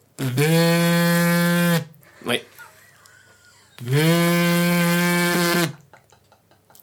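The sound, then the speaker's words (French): A voice imitates an old Nokia 3310 mobile phone vibrating: two long, loud, steady buzzing hums, separated by a brief pause with a quick spoken word. “Le portable sur vibreur.”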